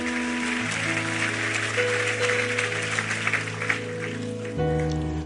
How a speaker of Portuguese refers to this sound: Aplauda ele. Vamos ficar em pé, vamos embora.